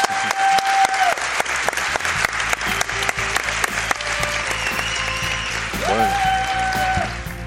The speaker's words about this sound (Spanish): Un aplauso para ellos.